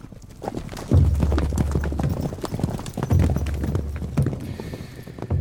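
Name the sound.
horse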